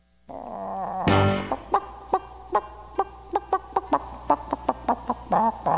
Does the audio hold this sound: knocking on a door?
no